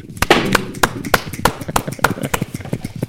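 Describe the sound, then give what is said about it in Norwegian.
Around ten sharp, crisp finger snaps in a quick, fairly steady rhythm, each a bright click, with some low murmuring sounds between them. “Ja, du er på knipsing, du.”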